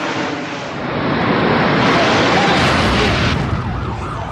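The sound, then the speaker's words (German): A bomb detonated in a city centre erupts into a loud, rumbling roar that swells and lingers for a few seconds, with faint wailing sirens emerging toward the end. “Attentäter Anders Breivik lässt die Bombe in der Innenstadt hochgehen.”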